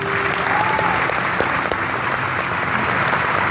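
A steady wash of audience applause, many hands clapping continuously at an even, fairly loud level for the whole stretch, with a brief faint tone near the start.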